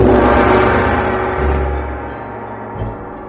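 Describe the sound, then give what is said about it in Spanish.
A gong is struck once and rings out loudly, its dense shimmering tone humming low and slowly fading over a few seconds, with no voices present. “¡El gong!”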